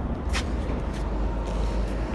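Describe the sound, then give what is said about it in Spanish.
Steady street traffic of many cars rumbles on a street at the top of a staircase, a dense low-frequency roar with brief hissing swells as vehicles pass, continuous throughout with no voices. “Merlín me hizo subir a una escalera ya dejó de importarle la pelota ahora y se está dirigiendo hacia la cima, en donde hay una calle, por eso van a escuchar este ruido. ¿sí? Acá hay muchos autos, Merlín.”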